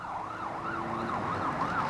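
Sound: approaching sirens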